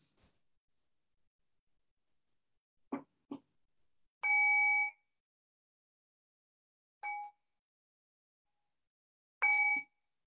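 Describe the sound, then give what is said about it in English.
A meditation bell is struck three times to end a meditation practice held over Zoom, each clear metallic tone ringing briefly before fading, with a couple of soft knocks just before the first strike. “And so, in the next moment or two, I'll ring the bell and I'll bring us back into a conversational space.”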